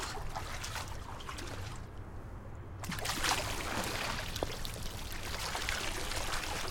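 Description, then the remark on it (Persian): Continuous sloshing and splashing of water as a person, still in their clothes, moves through it, with a brief quieter lull before the churning grows louder again. No one speaks. “با لباس بابا سرما میخوری رفت تو آب”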